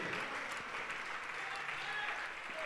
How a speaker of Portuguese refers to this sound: Vamos aplaudir e glorificar mais ao nome do Senhor.